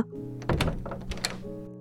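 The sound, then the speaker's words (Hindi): A room door opens with a solid thunk and a few short knocking clatters as it moves, set against a soft, steady musical drone with no voices. “तभी रूम के दरवाजे के खुलने पर उसने कहा”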